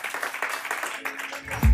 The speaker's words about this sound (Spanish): Dale un fuerte aplauso al Señor y ponte de pie.